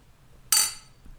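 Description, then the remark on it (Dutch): A single bright, sharp clink of glasses touching in a toast during a tasting of a spicy mango drink, with a shimmering ring that fades quickly. “Klinken.”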